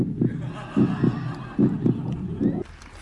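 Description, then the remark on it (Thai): A heartbeat sound effect: deep, muffled thumps in steady lub-dub pairs, repeating about every 0.8 seconds, loud, then cutting off abruptly near the end. “แต่มันเป็นความนิ่งที่ปนอึ้งแถมยังเจือความสงสัยและลุ้นระทึกใจระทึกใจตึกตักอีกต่างหาก ฟังเสียงใจเต้น”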